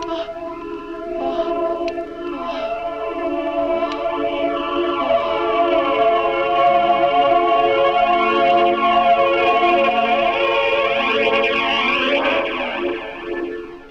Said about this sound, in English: Yeah, actually, let's spend two seconds on the soundtrack. It's basically uh, needle dropping on library records of like hard avant tonalities, and then they put it through uh, flange.